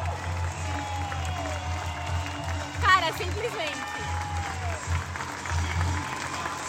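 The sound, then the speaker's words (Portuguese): A stadium crowd of about 2,800 at the first match of the 2023 Brasileirão Feminino women's football league applauds as the players come to thank them, a steady, dense wash of clapping and murmur that continues throughout, with a man speaking briefly over it. “É, a torcida tá aplaudindo muito, está muito legal.”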